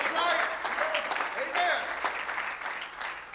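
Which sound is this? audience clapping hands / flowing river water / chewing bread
audience clapping hands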